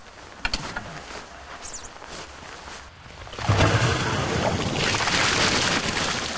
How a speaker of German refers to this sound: Durch die Spülung wird die Leitung gereinigt.